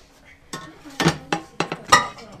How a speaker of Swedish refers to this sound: Får ni loss den här testas nu? Att hur fungerar samarbete här? Kastruller, två kastruller står fast i varandra. Så, det gick.